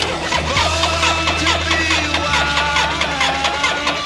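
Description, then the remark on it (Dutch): A loud Harley motorcycle engine churns and rumbles steadily for a few seconds, a deep low drone with a slight shift partway through, as the bike is cranked over but fails to start on a very cold day, its oil thick and the engine not yet warm. No voices. “Wat ze wel voor mij willen regelen is dat ik een stukje mee kan rijden achter op een Harley.”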